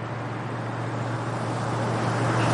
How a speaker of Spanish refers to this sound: Un coche transita por una carretera con nieve a los lados.